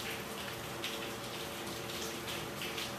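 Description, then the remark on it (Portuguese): Steady rain falls outside, a dense patter of raindrops with a continuous wash of hiss at moderate, even volume and no voices. “Dá para ouvir os pingos da chuva?”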